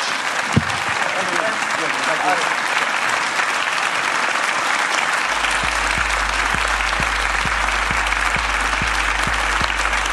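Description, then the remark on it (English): Loud, sustained applause from a live audience at an Edinburgh Fringe show for Veer Das, dense clapping with scattered sharper claps and a steady low rumble underneath, continuing throughout without letting up. “Ladies and gentlemen, give a massive round of applause.”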